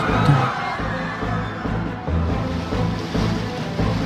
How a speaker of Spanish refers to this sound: Se ha inundado la cocina en el subsuelo y se está inundando la planta baja.